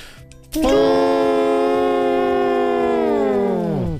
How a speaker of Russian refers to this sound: Едем во Владимир. Гудок. Нам нужен гудок. Сейчас будет